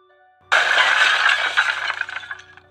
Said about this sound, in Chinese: 艾米的蜡笔筒不小心摔落地面，它们全部变得四分五裂了。